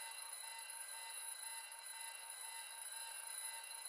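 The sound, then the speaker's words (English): Alarm clocks ring in a continuous, steady electronic tone with bright overlapping pitches, holding at an even loudness throughout with no pauses and no voices. “Let's just reset all the alarms”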